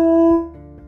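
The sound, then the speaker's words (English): A dog lets out a short, loud, sustained howl on a steady pitch that fades after a moment, in response to ambulances passing by, with no voices present. “So a, a an ambulance ambulances came by and my dog just started howling.”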